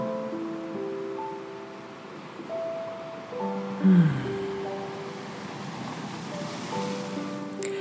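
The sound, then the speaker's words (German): Soft ocean waves wash in and out in a steady, continuous hush, with gentle tonal hums layered over the surf and a brief louder swell midway. “Und diese Wellen sind so schön beruhigend, weil sie sanft und gleichmäßig kommen und gehen.”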